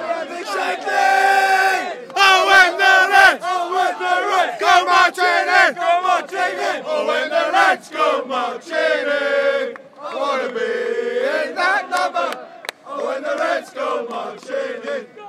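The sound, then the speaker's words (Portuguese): A large crowd of Liverpool football fans sings a chant in loud unison outside the stadium as the Liverpool team bus arrives through a corridor of red flares, voices merging into a continuous, rousing roar with short breaks between phrases, energetic. “Agora é a vez do ônibus do Liverpool chegar, passando por um corredor com muitos sinalizadores na cor vermelha, obviamente, muitos torcedores incentivando o time do Liverpool, cantando sem parar.”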